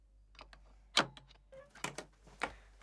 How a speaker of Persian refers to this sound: بریم کنار در باز شد